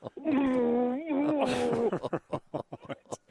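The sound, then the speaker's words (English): A voice imitates a muffled, frustrated moan, like someone gagged: one loud, sustained humming groan with wavering pitch, followed by choppy, breathy vocal bursts. “I'm getting some frustrated noises coming at me, like a, like a kidnapped walker.”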